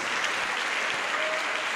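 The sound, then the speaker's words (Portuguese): An audience applauds steadily for the Lord, many hands clapping in a dense, continuous wash of sound that stays loud and even throughout, with no individual claps standing out. “Então vamos dar uma salva de palmas para o Senhor, porque Ele é Deus.”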